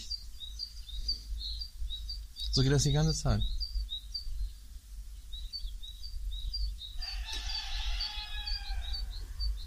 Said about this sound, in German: Vöglein zwitschern. Aber habt ihr gehört? Dieses überpotente Hähnegebrülle hier